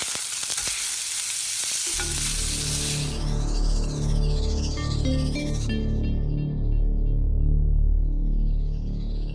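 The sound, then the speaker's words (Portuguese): A hot griddle sizzles with a loud, steady crackling hiss. After a couple of seconds a droning, tonal layer with sweeping pitches joins it. No one speaks. “colocou esse, esse som diferente aí para nós hoje, de chapa quente, para inspirar aí você e saber se a sua chapa tá esquentando também.”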